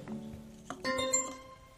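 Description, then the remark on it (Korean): A message notification chime: a quick bright ping followed by a clear ringing tone that sustains briefly and fades, heard over a faint low background hum with no talking. “알림이 도착했습니다.”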